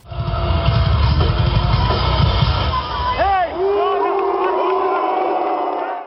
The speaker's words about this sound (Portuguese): Eu lembro, eu tava lá e foi uma vaia até esperada, né? O … era uma banda de rock mais nova, com público teen, público adolescente, na noite mais temida do